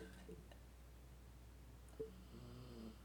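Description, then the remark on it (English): Soft snoring from a dog: a short rasping breath at the start, then a longer, rumbling snore near the end, quiet against a steady low hum. “Snoring.”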